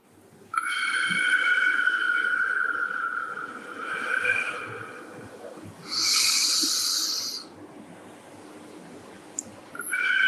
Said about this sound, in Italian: Esatto, uno può trovare il suo ritmo perché abbiamo un ritmo di entrata, quindi inspirazione, dopo trattengo per qualche secondo respiro e dopo lo espello l'aria.